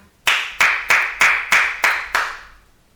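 A single person claps seven times in a steady, quick rhythm, each clap sharp and loud with a bright, harsh snap, the last one ringing out slightly as it fades.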